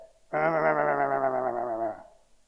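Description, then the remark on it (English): A voice imitates grumbling with one sustained, low, wavering hum-like growl lasting under two seconds, steady and fairly loud, with no words spoken. “Now, a few months ago when we were talking about this passage, I asked my kids, I said, What does grumbling sound like?”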